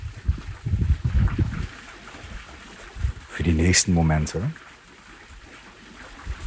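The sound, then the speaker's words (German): Steady flowing water and a soft rush of wind fill the background throughout, while a calm voice speaks briefly over the continuous natural ambience. “lass dich einfach von dem Klang des Wassers neben dir, des Windes, und meiner Stimme in die Entspannung begleiten.”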